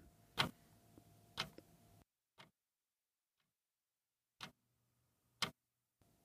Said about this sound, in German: Das leise Ticken der Wanduhr beruhigte sie weiter und schon wenige Minuten später schlief sie ein.